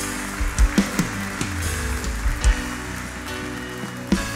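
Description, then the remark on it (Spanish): A church audience applauding for the Lord: steady, dense clapping that holds for several seconds over a low sustained musical tone, with a few heavier thumps mixed in and no talking. “Da un aplauso al Señor, iglesia.”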